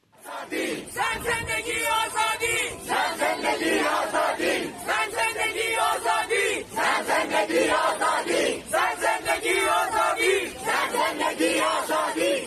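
A large crowd of protesters at the cemetery of Sarès chants slogans loudly in unison, including the Kurdish slogan meaning "woman, life, freedom", shouting in repeated rhythmic bursts with brief pauses between phrases, the massed voices filling the space outdoors.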